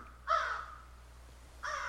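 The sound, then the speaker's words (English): A crow caws twice, loud: one harsh, drawn-out call, then a pause before a second caw that is cut off at the end. Low background hum underneath, no voices. “It would not be right without some morning crow, even though it's evening here at Faith Studio 2.”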